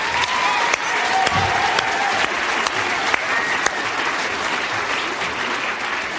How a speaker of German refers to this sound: Cool, dass ihr da seid. Geben wir doch den Kindern Applaus.